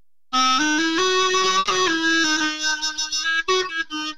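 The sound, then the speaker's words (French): A reedy, buzzy wind tone from a watering can blown like a horn, sustained notes sliding between pitches with a nasal timbre between doudouk and clarinet, jumping up an octave by itself, played fairly loud with short breaks near the end. “Ben, ouais, celui que j'utilise beaucoup en ce moment, c'est euh, l'arrosoir de ma mamie, qui, fait un son vraiment incroyable, par exemple.”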